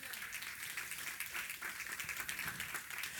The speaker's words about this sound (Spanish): un aplauso al Señor por ello?